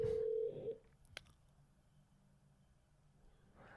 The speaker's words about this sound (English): Let's see if Don Frye picks up the phone.